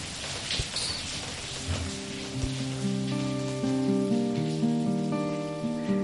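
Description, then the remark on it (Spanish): Steady rain falling at night patters and hisses evenly; after a couple of seconds, soft sustained musical tones swell in and play over the rain. “Esta noche llueve y la lluvia siempre es nostálgica”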